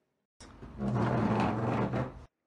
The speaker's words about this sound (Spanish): Mm, por ejemplo, si tomas una silla y la arrastras para moverla, suena más o menos así.